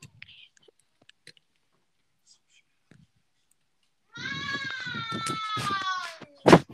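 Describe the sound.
After a few quiet seconds, a child's voice lets out a long, sustained, siren-like wail, imitating the monster Siren Head, followed by a short sharp burst of noise at the end.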